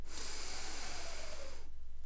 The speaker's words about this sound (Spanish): La señora Bixby obedeció. Hizo una profunda respiración